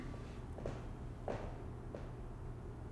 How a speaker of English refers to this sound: Just your, t- your footsteps. That's that's me climbing. That's, your, that's, a, that's a climbing sound effects.